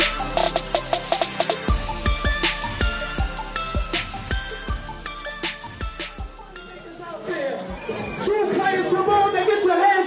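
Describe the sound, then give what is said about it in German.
Party crowd chatter: a loud jumble of many voices that swells up toward the end, after a stretch of music with a steady, thumping beat and bright, sustained tones. “Die Aufnahmen, die hier im Hintergrund zu hören sind, sollen original von dieser Party stammen.”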